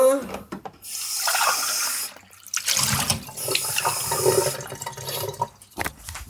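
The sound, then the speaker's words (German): Water runs from a tap in steady, splashing bursts, with brief pauses where the flow stops and starts again, like a sink being filled. “Aber was will man machen? Äh, äh, äh, Wasser.”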